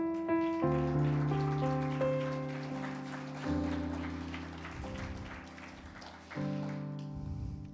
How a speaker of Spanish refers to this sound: Ah, no, dale un aplauso al rey.